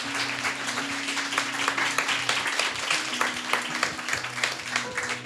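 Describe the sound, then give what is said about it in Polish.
Steady audience applause for the guests at a magazine premiere event fills the whole stretch, a dense patter of many hands clapping at once, moderately loud, with a low hum running underneath. “Brawa dla Was i ukłony.”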